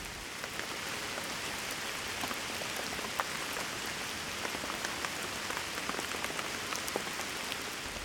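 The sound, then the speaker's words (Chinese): Heavy rain pours steadily, a dense, even hiss of countless drops with scattered sharper patters and taps on a surface, continuous throughout with no voices. “我喜欢雨天，喜欢那些不需要外出的暴雨天，蜷在沙发上，留一个半开的窗缝，听着大自然的白噪音。”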